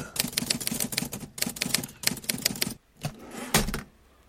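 Rapid mechanical clacking of typewriter keys in quick bursts, crisp, as a writer types a novel late at night, pausing briefly before a few final louder strikes and a carriage-like thunk near the end.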